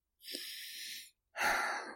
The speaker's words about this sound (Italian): Si alzò in piedi a fatica. Respirò ancora a fondo.